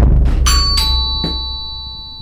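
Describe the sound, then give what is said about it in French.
A doorbell chimes in a two-tone ding-dong, bright sustained tones ringing out over a low background hum, with a few soft knocks or clicks around it and no talking; someone is at the door. “Vous avez entendu ça euh, Je suis pas fou, ça a sonné. Ça a sonné. Attends, je vais voir.”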